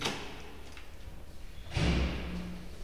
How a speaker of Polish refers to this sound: Jestem przed łazienką, otwieram drzwi.